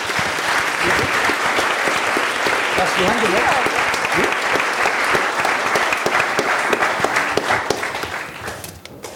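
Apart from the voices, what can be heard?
audience applause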